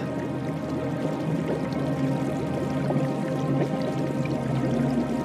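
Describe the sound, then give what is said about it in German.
Steady bubbling and gurgling of a warm spring rising from deep in the earth at a hidden geyser among glaciers and snow-covered mountains, a dense, continuous flow with small splashes and pops, no voices present. “Tief aus der Erde kommt die warme, sprudelnde Quelle.”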